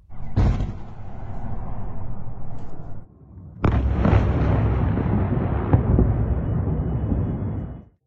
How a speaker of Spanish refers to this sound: Mientras los tanques cruzaban la frontera de Ucrania, la capital y otras zonas de este país eran atacadas por la aviación y los bombardeos rusos en una ofensiva relámpago por parte de Moscú.